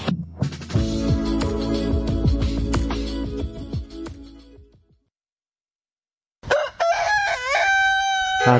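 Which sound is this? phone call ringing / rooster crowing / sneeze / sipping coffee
rooster crowing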